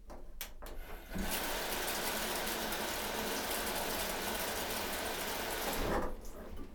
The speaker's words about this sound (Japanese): シャワーの水圧です。ここは良さそうですよ。